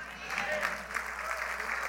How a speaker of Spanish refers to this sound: Póngase de pie, por favor. Aleluya. Siga aplaudiendo un poquito más. Siga un poquito más.